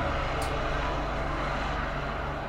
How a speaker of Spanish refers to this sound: Ya veo sonido el helicóptero, parece que están buscando un flight